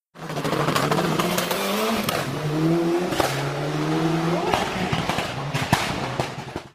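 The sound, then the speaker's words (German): A loud rally car engine revs hard, its growling pitch climbing and dropping repeatedly, with sharp backfire pops and cracks bursting out every second or so. “Ich hatte so ein, auf YouTube so ein Video gesehen von so einem absurden Rallye-Auto, was mega laut war und aber Gas gegeben hat ohne Ende.”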